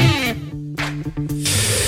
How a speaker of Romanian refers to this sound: Ne scrie o ascultătoare, o tipă tocmai și-a dat cu spray la sub braț în tramvai. Morning glory, morning glory, dați cu spray la subțiorii.